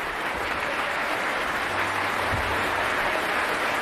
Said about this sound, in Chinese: 这掌声，相信也是送给第六次执棒维也纳新年音乐会的指挥大师里卡尔多·穆蒂的。穆蒂在今年七月份将迎来自己的八十大寿。这掌声也是对大师即将到来的生日献上的祝福。